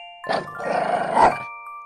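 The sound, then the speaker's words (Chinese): A person imitates the low growl of E.T., a dog, growling back at it during a play fight: one sustained, rough, rumbling snarl lasting just over a second, heard over a faint steady musical tone. “我当然也不甘示弱，学着他的样子向他低吼着”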